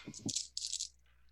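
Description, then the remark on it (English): A handful of hunger dice clatters and rattles across a hard surface in a quick burst lasting under a second, then fades to quiet. “Uh, I have a lot of dice for this roll.”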